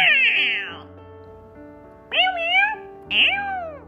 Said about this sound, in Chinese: 不过就在这个时候，喵！